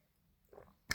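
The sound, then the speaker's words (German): A quick sip of Orchard Thieves, an Irish cider, from a glass: a soft wet slurp followed by a sharp bright clink of the glass, with no talking. “Wir trinken übrigens keinen Wein.”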